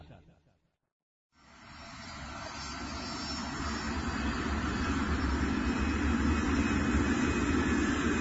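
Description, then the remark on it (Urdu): A brief muffled sound fades into silence, then a loud, steady airplane engine roar swells in and builds, a broad low rumble with a faint high whine sustained to the end, as a plane carrying Hajj pilgrims gets ready for flight at an airport. “حاجی صاحبان کا دوسرا جہاز بھی پرواز کے لیے تیار ہے”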